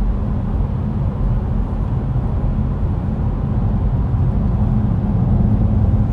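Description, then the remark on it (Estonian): Steady, loud low-end rumble of a car, not a sports car, driving on an uneven road, with constant road and tyre noise and faint bumps throughout, recorded from inside the vehicle. “auto on täpne ilmselgelt ta ei ole sportauto, aga praegu nagu kui niisugust teed sõita, siis”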